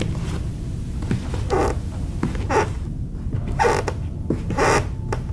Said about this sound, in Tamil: இந்த சத்தங்களை எல்லாம் கிழிக்கிற மாதிரி கொஞ்ச நேரம் கழிச்சு அந்த லைப்ரரிக்குள்ள யாரோ நடக்கிற மாதிரியான சத்தம்